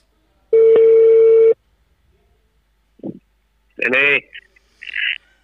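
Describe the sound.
A single long, steady ringback tone sounds over a telephone line for about a second as a call is placed to the police in Cuba, followed after a pause by brief muffled speech as someone picks up.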